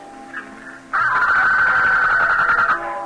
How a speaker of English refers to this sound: Sure, it's a guinea hen.